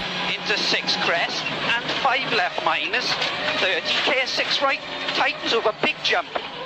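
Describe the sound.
A rally car engine roars inside the cockpit during a special stage of the 1998 Rally de Portugal, a World Championship round in northern and central Portugal. It revs and shifts continuously while the navigator rapidly reads out notes over the mechanical noise.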